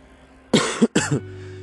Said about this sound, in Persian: این سرفه ها هنوز هست به خاطر کرونا هنوز خوب خوب نشده